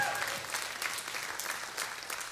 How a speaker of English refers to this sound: Come on, give God a big hand clap of praise and say, God, I thank you.